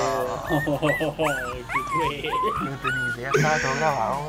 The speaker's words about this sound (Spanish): se escucha cuando se caen los perros